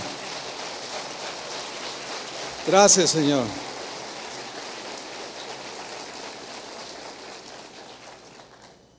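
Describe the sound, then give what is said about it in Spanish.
An audience applauds in a dense, steady wash of clapping that holds for several seconds, then gradually fades out. Partway through, a voice briefly speaks over the applause. “Y eso merece otro aplauso.”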